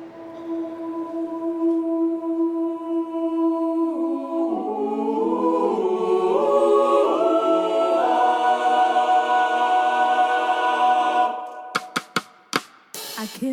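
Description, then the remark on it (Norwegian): A woman's voice holds a long, steady sung note in a church, then a gospel choir swells in with rich layered harmonies. The singing stops abruptly, followed by a few sharp clicks. “så framfører hun altså i denne kirka som mora uh, gikk i, med, med sånn gospelkor.”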